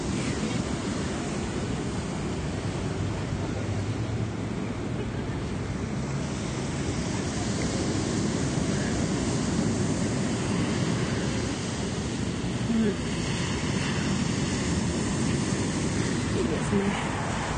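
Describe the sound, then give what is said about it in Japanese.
Strong ocean surf roars steadily against a sandy beach at night in chilly weather, a loud, continuous wash of breaking waves mixed with gusty wind buffeting the microphone. “波が結構強いですね”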